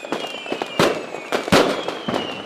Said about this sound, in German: jetzt, liebe Inka, zünden wir nochmal ein extra großes Feuerwerk, oder?